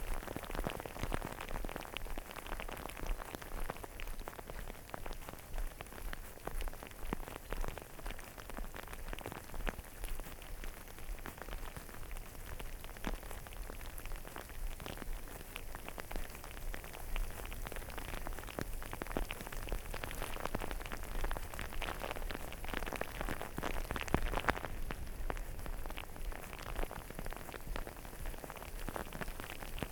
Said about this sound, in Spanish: está granizando. Muy pequeño, es un granizo muy, muy, muy pequeño.